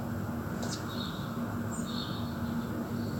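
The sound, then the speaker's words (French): Faint birds chirp a few times outdoors at 10 in the morning, their short high calls barely rising above a steady low hum and background noise. “dehors, il n'y a pas un bruit, à part celui des oiseaux.”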